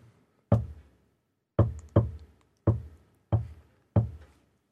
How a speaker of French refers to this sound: c'est genre la personne derrière la porte, bam, bam, bam, et qui fait le code en morse